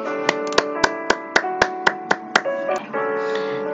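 hand clap

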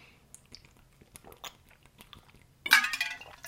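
taking a drink

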